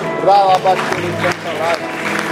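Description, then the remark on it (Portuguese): An audience at a Christian worship service applauds steadily to give glory to God, a dense wash of clapping filling the whole clip, while voices call out and sing over it. “Na salva de palmas, dá glória a Deus.”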